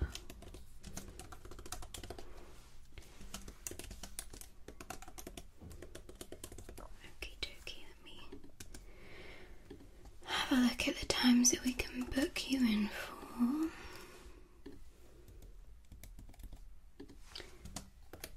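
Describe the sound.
Soft, rapid clicking of keys on a computer keyboard, steady, with a quiet whispering voice over it and a denser burst of typing partway through, during an ASMR role-play of checking a guest in at a luxury hotel.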